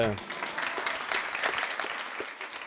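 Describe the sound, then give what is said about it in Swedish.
A steady burst of clapping from a small group for the winner of a quiz, dense and even for about three seconds, with a brief voice at the very start before the applause takes over. “Vi ger honom en applåd.”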